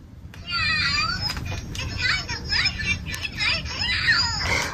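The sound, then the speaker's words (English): A talking cat toothbrush toy, started by pushing its button to get children brushing, chatters in a squeaky, high-pitched cartoon voice, with bright sweeping tones running steadily for several seconds over faint background noise. “you push the button and it talks and gets your kids brushing.”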